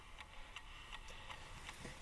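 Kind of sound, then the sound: household object, alarm clock ticking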